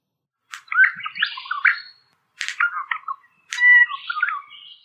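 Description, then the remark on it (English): Three quick bursts of a little water bird's song, each a lively jumble of bright chirps and trills. The song is clear, with short silent gaps between phrases and no talking. “And now Ross told us that one of his other favorites was uh, the little water bird. So get ready for this one.”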